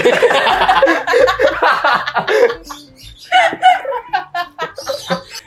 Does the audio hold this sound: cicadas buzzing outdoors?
no